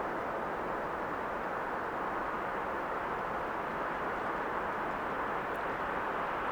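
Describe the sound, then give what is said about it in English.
A steady, unbroken rush of wind sweeping through a snowy pine forest, a dense airy hiss that holds an even loudness throughout, with no voices or other distinct sounds. “In this one singular moment where you hear or perhaps even feel. Wind as it sweeps across you and through you.”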